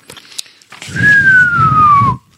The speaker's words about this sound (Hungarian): így hangzik, hogyha hallgatnánk rádióba egy gyors rádiókitörést, tehát csúszik el a frekvenciája, uh-huh. ezt um, disperziónak hívják, és ez arra vonatkozik, hogy a, a galaxisok közötti tér sem üres, van ionizált hidrogén